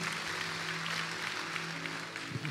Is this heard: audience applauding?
yes